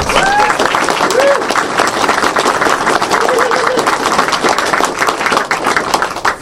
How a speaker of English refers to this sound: And I don't know. You've been a board member longer, probably than some people have been alive. Big hand of applause for this guy.